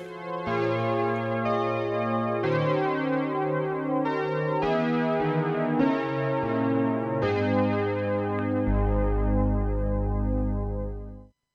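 A hymn sung slowly, with steady sustained notes moving from one pitch to the next in unhurried phrases, ending on a long held note that fades out.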